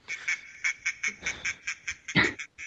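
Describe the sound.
A person imitates a duck, giving a quick run of about ten nasal, buzzy quacks in a steady rhythm, with one louder, rougher quack near the end.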